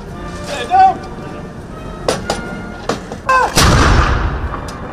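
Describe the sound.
Ceremonial 100-gun cannon salute in London on a Monday at noon by the King's Troop Royal Horse Artillery, honouring Queen Elizabeth II's 70 years on the throne: several sharp booming shots at uneven intervals, the last loudest with a long rumbling echo, over a murmuring crowd and scattered voices.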